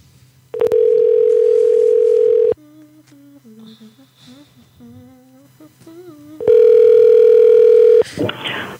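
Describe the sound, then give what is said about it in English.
Two long, loud, steady telephone tones, each about two seconds, sound like a line ringing as a call is placed to a trampoline park. A faint voice murmurs in the quieter gap between them, and a brief burst of noise follows. “All right, let's call a trampoline park.”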